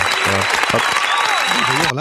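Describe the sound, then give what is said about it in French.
Loud, dense applause fills the whole two seconds, a steady wash of rapid clapping, with a voice talking underneath it. “Moi je suis content parce que j'aime bien que j'aime bien que ça fasse des émules, j'aime bien que les gens se sortent un peu les doigts, tout ça donc j'applaudis.”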